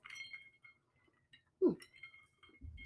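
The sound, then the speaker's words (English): Glass bottles clink together in a toast, one bright ringing tap with a sustained high tone that lingers, followed by a soft thud and faint rustling. “okay, cheers. All right, cheers to the first episode.”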